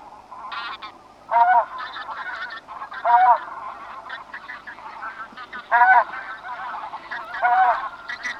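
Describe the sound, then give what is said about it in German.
A flock of bean geese honking at the Neolitteich, with four loud, nasal calls standing out at roughly regular intervals above a steady background of many overlapping goose calls. “die Saatgans ist der Vogel der Woche”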